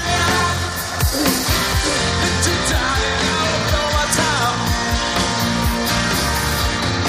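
A loud, dense live rock concert at the Wanda Metropolitano stadium in Madrid on 1 June 2022, opening a European tour before more than 50,000 people, with driving drums, sustained guitar chords and a steady wash of crowd noise mixed underneath, holding a constant full volume throughout.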